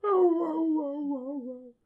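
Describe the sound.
A person's voice imitates a dog's howling "bow wow" bark: one drawn-out, tonal wail lasting under two seconds that slides slowly downward in pitch, fairly loud, with no other sounds.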